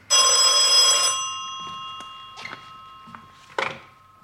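A telephone bell rings loudly in one sustained, bright burst for about a second, its tone lingering, followed by a few soft knocks and handling clatters.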